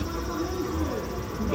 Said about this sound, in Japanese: もう今ね、セミの声もね、ガンガンと聞こえてきて、昨日までの雨が嘘のように本当に快晴ではないで、まあ、快晴ですかね、青空見えてますからね。